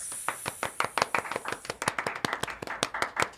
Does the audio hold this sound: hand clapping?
yes